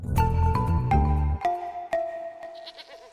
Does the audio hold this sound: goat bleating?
yes